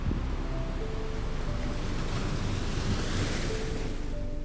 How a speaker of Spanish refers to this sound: El mar se mueve y yo con él.